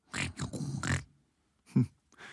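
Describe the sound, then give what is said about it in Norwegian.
A pig grunts and snorts in a quick run of rough, breathy bursts, then pauses before a deeper, louder grunt and one last snuffle. “Hei, lo, lille gris. Å, gisse, gisse, gisse, gisse.”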